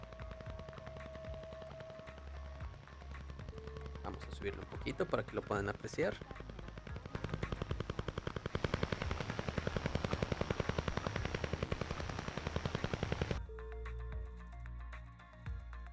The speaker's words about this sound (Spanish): Entre 1976 y 1989, muchos radioescuchas reportaban un repiqueteo que podía ser sintonizado en casi cualquier parte de Europa. Y que inclusive podía colarse en los teléfonos de la época. Es esto que estamos escuchando.